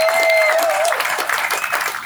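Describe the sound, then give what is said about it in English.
A crowd of Democratic Party supporters bursts into sustained applause, a dense, steady wash of many hands clapping at once, with a brief whistle ringing out near the start. “You all need to give yourselves a big round of applause for all you've done.”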